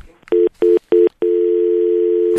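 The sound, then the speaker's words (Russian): A telephone line tone after a caller's call drops on a live radio phone-in broadcast: three short, evenly spaced beeps, then one steady unbroken tone that continues to the end. It is loud and clear, with no voices. “Так, дорогие друзья, э, перезванивайте, сразу выведем вас в эфир, ответим.”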